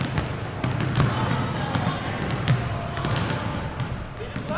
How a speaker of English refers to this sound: So we're here at MLSE Launchpad at the all-female community gym event by Tangerine. So full disclosure, if you hear a bunch of screaming girls or bouncing basketballs, that's what it is because they're really excited uh, to be coached